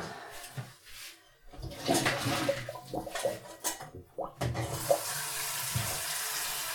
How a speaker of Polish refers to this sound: Ja sobie w międzyczasie naleję wodę z garnka.